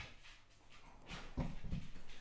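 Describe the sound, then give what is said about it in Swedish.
A dog gives two short, whiny yelps in quick succession, not loud, after a quiet moment with faint background rustling. No one speaks. “Nu kan inte jag koncentrera mig för att du pratar med hunden samtidigt.”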